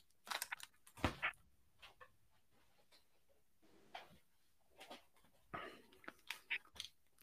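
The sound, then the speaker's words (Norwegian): A dog gnaws on a battery, producing irregular crunches, clicks and scrapes in short bursts, with soft panting breaths in between and no one talking. “så skal jeg bare ta et batteri fra hunden min som han begynner å spise nå.”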